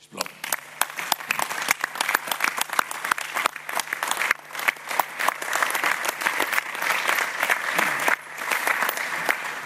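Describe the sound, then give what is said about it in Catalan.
A crowd at a Barcelona club election event breaks into sustained applause for the polling-table helpers and club staff, dense rapid clapping from many hands that stays loud and steady for the whole stretch, with no one speaking over it. “Per tant, un aplaudiment per tots ells.”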